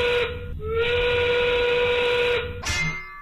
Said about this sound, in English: The 5 o'clock whistle, powered by smart local Union 9 sheet metal workers.